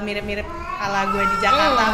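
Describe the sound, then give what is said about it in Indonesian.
A cat meows, a drawn-out rising and falling call near the end, while a person talks over it in a casual voice. “beda karakter kan ya itu suara”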